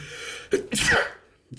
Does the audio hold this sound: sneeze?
yes